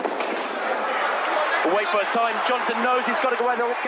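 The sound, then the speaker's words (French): A starter pistol fires to start the 200 metres final, with Michael Johnson in lane 3. The sharp crack cuts through a steady roar of crowd noise and is followed by a busy stretch of overlapping voices and cheering. “Le starter lève son pistolet au ciel, presse la gâchette.”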